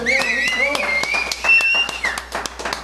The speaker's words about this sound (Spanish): Fuerte el aplauso que se escucha